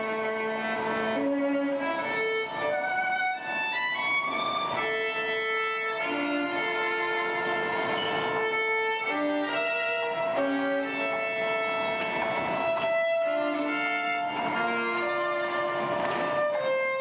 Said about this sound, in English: This is happening in 7:51 a.m. on Friday, January 12th of 2007. There's a man who sat at a metro station in Washington D.C. and he started to play his violin. It was a cold January morning.